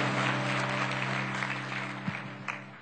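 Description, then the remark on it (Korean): An audience at a church worship service claps together in steady, dense applause giving glory to God, tapering slightly toward the end, with a low sustained musical hum underneath. “하나님께 영광 박수 올리시면서 자리에 앉으시겠습니다.”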